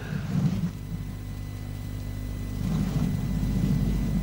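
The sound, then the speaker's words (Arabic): Steady rain hisses throughout while deep rolls of thunder rumble near the start and again toward the end, with no voices present. “جاء مثل آخر أو كصيب من السماء الصيب المطر من صاب يصوب”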